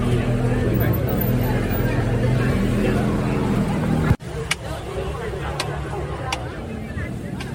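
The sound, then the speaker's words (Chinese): A maltose-candy and mochi vendor's clacker snaps out several sharp, bright clacks at uneven intervals over a steady murmur of crowd chatter and street noise on a crowded old street. “听到这个咔咔咔的声音，你如果有点画面感，会猜得到，这是卖那个菜饴跟麻吉的声音。”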